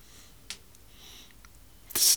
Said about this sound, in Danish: Ja, når du bladrer. Der er ikke ret mange bøger, der knitter på den her måde. det er jo sådan et hårdt presset papir, øh, men ikke øh, bestrået.